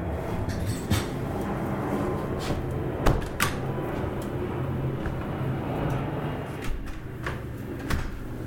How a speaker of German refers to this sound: Ich mache, glaube ich, mal das Fenster zu, weil hier starten jetzt im Minutenrhythmus die Flugzeuge.